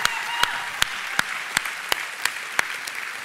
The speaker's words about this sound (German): Steht ihr mal auf. Lasst uns mal einen großen Applaus geben für die Leute, die diese Arbeit angefangen haben.